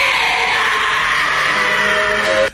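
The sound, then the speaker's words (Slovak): In a recording of an exorcism in the Czech Republic, a woman from whom a priest is driving out a demon lets out one long, loud, strained scream that holds steady for a couple of seconds before cutting off abruptly. “záznam exorcizmu zo susedných Čiech, výkriky ženy, z ktorej kňaz vyháňa démona.”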